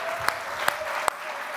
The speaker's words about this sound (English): Now give him a clap offering.